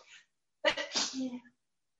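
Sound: a person sneezing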